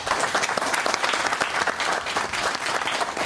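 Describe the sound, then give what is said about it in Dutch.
A crowd applauds a competitor provisionally in ninth place, clapping steadily for a few seconds: a dense, even patter of many hands clapping at once, fairly loud and sustained without a break. “Hij heeft het eh, goed gedaan, geef hem maar een applaus.”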